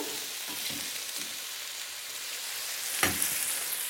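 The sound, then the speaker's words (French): A pan over full high heat sizzles steadily and loudly with a broad hiss as a small glass of white wine is added to deglaze, punctuated by a few soft clinks and stirring scrapes, and a sharper burst of sizzling near the end. “Maintenant, je peux déglacer au vin blanc. Hop, j'ajoute mon petit verre. Je reste sur mon feu fort.”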